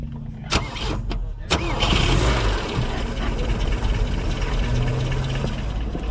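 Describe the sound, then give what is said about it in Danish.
A vintage Volvo car engine, started with the key in the ignition, cranks with a few sharp clicks and catches, then settles into a steady, low idle that rumbles on without any talking. “Ja, nu, man kan jo næsten ikke høre, når der, altså man kan lige høre, når den starter, men når den går i tomgang her, øh, den larmer jo faktisk næsten mindre end en, en ny bil nu om dagen.”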